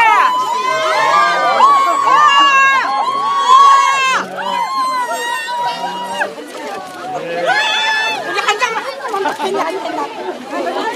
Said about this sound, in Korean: 문재인 전 대표가 움직일 수 없을 정도로 많은 시민들이 지금 몰려들었습니다